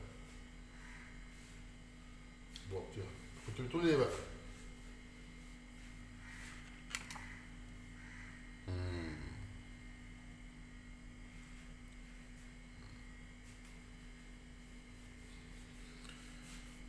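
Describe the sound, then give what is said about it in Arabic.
A loud, steady refrigerator hum drones continuously throughout, with a few brief clatters and a short spoken exchange briefly rising over it. “التلاجة دي صوتها عالي قوي”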